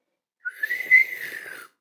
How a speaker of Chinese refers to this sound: 老女老女巫的嘴角伸出了冷冰冰的笑，她不紧不慢地把手指放进嘴里，吹出一声尖利的口哨。